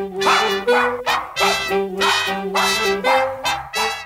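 A dog barks loudly and repeatedly, about eight quick barks in a steady rhythm, with a faint tonal hum or music sitting underneath.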